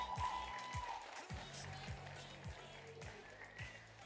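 A crowd applauds with a dense, steady wash of clapping that holds for several seconds, over a faint low tonal hum and some murmuring voices.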